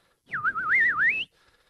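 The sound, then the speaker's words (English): A person whistles an imitation of birds chirping: one continuous warbling tone that wavers up and down in pitch for about a second, fairly loud and with no talking. “Shut up, birds.”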